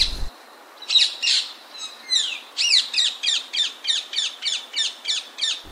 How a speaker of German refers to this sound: Ja, das ist der kleine Alexander-Sittich oder auch Halsband-Sittich genannt, der mittlerweile mit 3000 Vögeln in Köln ganz gut vertreten ist und hat uns auch schön begleitet, würde ich mal sagen.